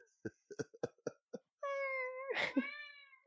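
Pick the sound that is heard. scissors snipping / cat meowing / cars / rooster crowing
cat meowing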